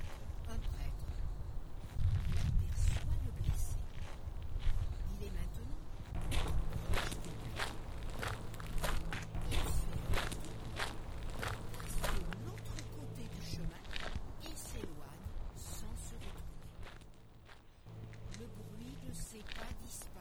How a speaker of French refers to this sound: Il lui semble entendre des pas. Il écoute C'est quelqu'un qui s'avance sur le chemin.